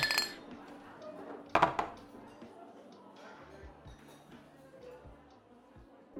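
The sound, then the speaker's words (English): Glasses clink together in a toast, a bright ringing chime with a quick second tap, then faint clatter and low murmuring voices carry on underneath. “Cheers, everybody! Cheers! Cheers.”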